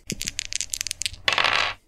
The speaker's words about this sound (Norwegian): Da kan du rulle terningen.